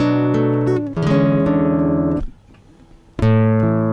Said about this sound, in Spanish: ¿Se escucha lindo o está medio rota la guitarra?